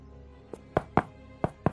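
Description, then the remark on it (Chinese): Knocking on the wooden door of a little girl's small house: a light tap, then two firm knocks, a short pause, and two more knocks, each a dull thump with no voices. “找到小姑娘家的小房子，他敲着门叫道”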